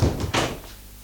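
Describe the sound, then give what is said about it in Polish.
A door is opened and closed for a test recording made without the Dolby system: a low thud, then a short, sharp clunk. The sound quickly fades into quiet. No one speaks. “Może zamknę i otworzę, otworzę drzwi zamknę drzwi”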